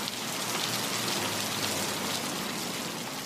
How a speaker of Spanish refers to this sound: Ese día fue una de las tormentas más grandes que Bogotá haya visto.